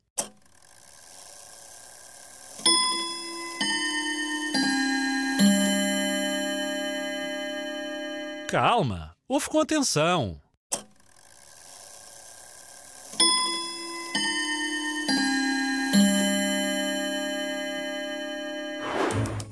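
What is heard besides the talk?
old clock ticking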